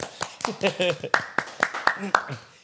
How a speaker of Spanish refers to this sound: Un aplauso.